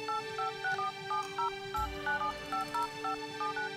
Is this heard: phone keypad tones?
yes